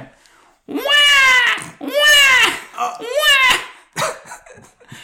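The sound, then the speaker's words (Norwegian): A child wails in three long, rising-and-falling cries, loud, each separated by short gasping breaths, followed by a few softer whimpers at the end, played as a jingle. “Det var da et barn som gråt.”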